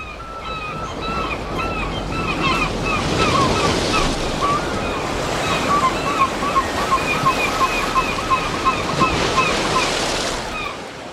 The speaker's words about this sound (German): Der Winter ist da, es wird rau bei uns im Norden. Der Wind pfeift, die Wellen peitschen, die Gischt weht einem ins Gesicht.